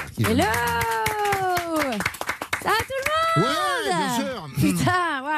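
Studio audience applause, with brisk clapping running under loud, drawn-out whoops and cheers that rise and fall in pitch throughout.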